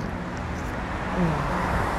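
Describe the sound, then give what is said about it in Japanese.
A steady wash of road traffic noise at a bus stop, with low engine rumble and a faint tonal hum swelling slightly midway, with no clear speech. “今楽譜がないのでわからないんですけどバス停ですからね”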